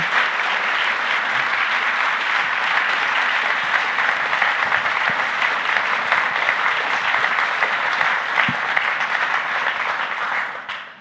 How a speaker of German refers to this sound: Applaus. Vielen Dank. Dankeschön.